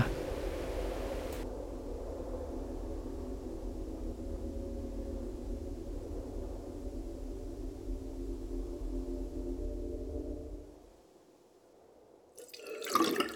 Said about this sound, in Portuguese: A torneira desregulada goteja para encher a caneca na pia e. Ah! Conserta outro dia.